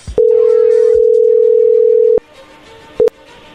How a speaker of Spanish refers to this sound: Ahí está entrando la llamada